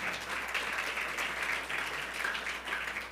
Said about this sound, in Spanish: Démosle un fuerte aplauso al Señor, por favor.